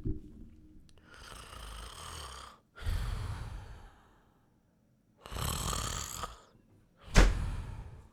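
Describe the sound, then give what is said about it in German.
A person asleep sitting on a chair snores in slow, heavy breaths, with about four long rasping inhales and exhales separated by short pauses and ending in a sharper snort. No one speaks. “Du hast ja gerade schön, schön auf, auf meinem Stuhl gesessen und geschlafen.”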